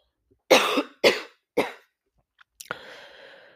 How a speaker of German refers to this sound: Sorry, ich muss husten.